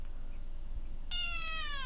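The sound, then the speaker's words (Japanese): A single drawn-out meow from a cat named Kimchi, one of twin cats, rises out of a quiet hum about halfway through, clear, with a slightly falling pitch that carries to the end. “猫も一緒です。”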